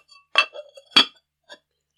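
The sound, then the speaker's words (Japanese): A few sharp ceramic clinks and knocks from a stylish earthenware donabe pot being handled as its wrapping paper is peeled off, with two louder taps close together and a softer one after a short pause, no voices. “これ今ちょっと包装用紙を剥がしながらだからちょっと見づらいと思うんですけど。”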